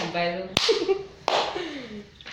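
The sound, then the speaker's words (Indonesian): Two sharp hand claps, spaced under a second apart, ring out over voices talking in the background, with a possible third softer clap at the very end. “Tepuk tangan online semuanya.”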